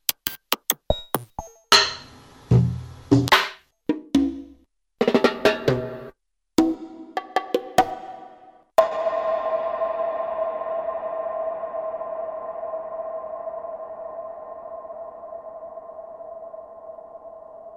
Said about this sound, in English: there it is, Drams one with the big reverb, uh, kind of percussive uh, sound.